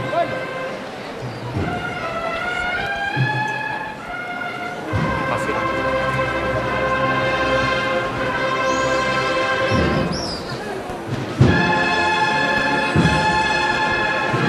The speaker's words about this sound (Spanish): la tercera vez que escuchamos Requiem aquí en la campana en el día de hoy.